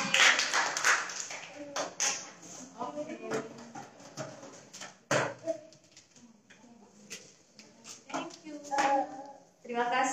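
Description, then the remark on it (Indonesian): A crowd at a worship service applauds for God with steady, dense clapping that runs the whole time, while voices talk and call out over it, moderately loud. “Tepuk tangan dulu dong buat Tuhan”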